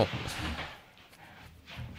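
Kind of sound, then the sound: household object, door being opened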